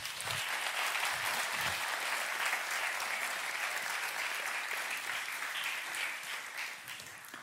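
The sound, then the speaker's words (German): An audience claps steadily for several seconds, a dense, sustained patter of many hands that holds its level before tapering off slightly toward the end. “Nochmal einen Applaus, bitte.”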